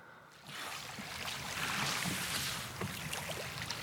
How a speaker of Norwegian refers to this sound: Vi må høre litt på da dere la på svømme i iskaldt vann. Vi har det klippet liggende her.